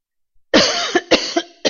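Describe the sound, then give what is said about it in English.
A loud cough bursts out after a moment of silence, followed by a couple more sharp, chesty coughs in quick succession. “excuse me, that's loud cough.”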